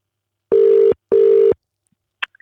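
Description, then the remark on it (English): A telephone ringback tone sounds while calling a teacher from the Perth Hills, a loud double burst, two steady buzzing rings back to back, followed by a brief pause and a faint click as the line picks up. “So let's get her on the phone.”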